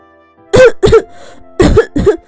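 coughing

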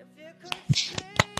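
hand clapping

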